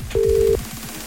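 A telephone call placed live to a listener on the 104.8 Shock FM Morning Show: one short, steady electronic tone sounds for under half a second over a low background hum, like a line connecting. Nobody speaks.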